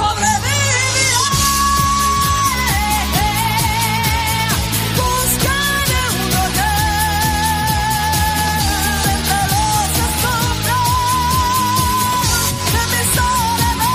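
A female pop singer belts out a dramatic song with long, sustained notes over a loud, full band with a driving bass line, continuous and up-front for the whole stretch.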